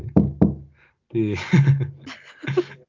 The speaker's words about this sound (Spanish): estaba sola y estaba ahí, eh, estaba ahí en su casa y de repente tocan la puerta, así.